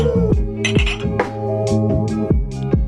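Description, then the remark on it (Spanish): A mug clinks several times in quick succession as it is taken out, sharp ringing knocks over a steady tonal hum in the background. No one speaks. “Saca tu tazón.”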